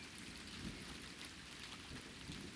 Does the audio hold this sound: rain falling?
yes